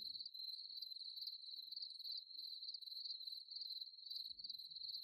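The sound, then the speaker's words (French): A steady, shrill metallic chirring of countless grasshoppers, crickets, locusts and mole crickets in meadow grass fills the air without pause, pulsing slightly in a fast rhythm, with a faint low rumble at the start and end. “le bruissement lancinant et métallique des régiments de sauterelles, de grillons, de locustes et autres courtières, disséminés par myriades sur les herbes de la prairie.”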